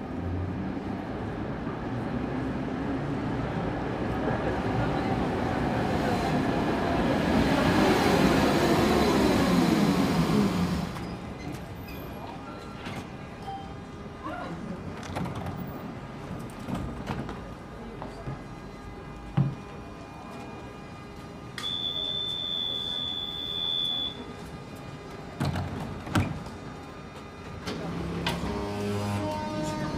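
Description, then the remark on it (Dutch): An old tram, one of those still running among newer trams in the city, closes its doors: a loud rumbling passage fades to quieter running noise, then a steady warning beep sounds and a sharp door thud follows, with faint murmuring in the background. “Als ik die oude tramdeuren hoor sluiten, ben ik ineens weer 12.”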